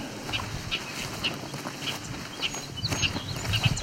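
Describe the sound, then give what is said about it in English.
A male bobolink, up a tree at the edge of a field, gives a short, clipped, angry version of its song: a string of high, sharp notes repeated every half second or so over steady rustling background noise, with no one talking. “it's an angry short version of his song, bobbling song.”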